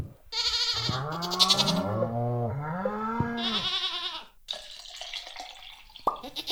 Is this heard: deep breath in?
no